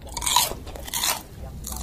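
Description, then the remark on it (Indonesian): Crunching on gorengan (fried snacks), with three loud, crisp bursts of chewing spaced roughly half a second apart, bright and crackly with brief pauses between bites; no talking. “Ini juga gorengannya enak.”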